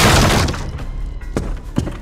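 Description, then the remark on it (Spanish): A door is pushed open on a count of three during a building fire: a loud, crashing burst with a splintering, shattering edge fades out, followed by two sharper knocks or thuds as debris settles. No voices are heard. “A la cuenta de tres empujamos la puerta.”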